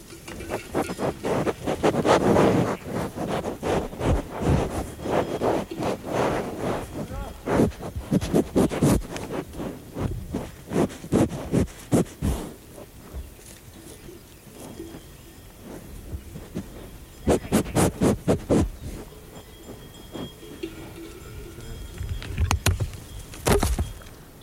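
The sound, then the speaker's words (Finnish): Microphones being knocked over: loud, close thumps, clunks and rustling handling noise come in irregular bursts, with a few quieter stretches between the clatters and no voices. “Tuollaisilta kuulostaa, kun mikrofonit kaatuvat.”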